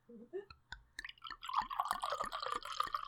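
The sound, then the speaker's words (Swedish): A few separate drips land in a glass, then liquid pours in steadily with a bubbly, gurgling splash that carries on for a couple of seconds, fairly quiet. “Vi får väl se om det bubblar någonting då.”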